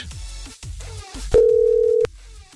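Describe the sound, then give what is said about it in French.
A telephone tone on a call being redialed live on Fun Radio sounds as one loud, steady, mid-pitched beep lasting under a second, preceded by low rumbling background noise and soft muffled sounds. “si jamais ça refait le tut tut tu tu tu”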